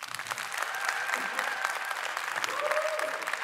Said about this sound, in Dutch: Ik denk dat we een winnaar hebben. Ik vond het eh, derde applaus het luidste klinken.